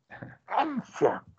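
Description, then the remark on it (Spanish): A fairly loud sneeze: a brief breathy build-up, then a strong two-part burst with a voiced, drawn-out ending, heard on its own without talk. “Jesús.”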